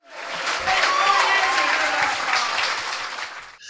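A crowd breaks into loud, sustained applause, a dense wash of clapping with a few faint whistles and cheers mixed in, fading slightly before cutting off at the end.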